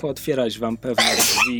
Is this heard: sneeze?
yes